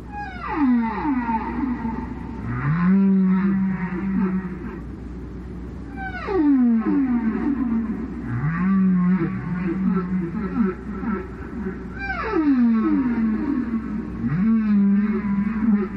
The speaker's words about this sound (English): So, um, in this case, it's a male humpback that's singing. He's trying to attract a mate, and and we call this humpback song, um, and and you know we hear it almost in a musical way. I mean, we can relate to it as a, as a song.